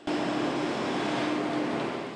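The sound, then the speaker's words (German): A steady, continuous drone of construction machinery: a broad rumbling engine noise with a constant low hum running through it, holding an even level for about two seconds with no voices. “Hätten Sie nicht auch lieber eine Baustelle in der Nachbarschaft, die sich so anhört, anstatt so.”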